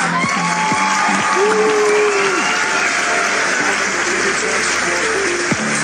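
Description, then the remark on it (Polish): A large crowd applauds and cheers loudly and steadily, a dense wash of clapping with scattered whoops and voices rising through it, filling the whole stretch without a pause. “Powiem krótko, zróbcie hałas dla remiksera tego nagrania.”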